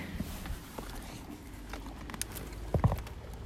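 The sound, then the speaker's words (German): A horse shifts about in a quiet stable, with soft scattered shuffling and patter, then a couple of heavier hoof thuds near the end. No one speaks. “okay, gut, ich bin wirklich im Stall.”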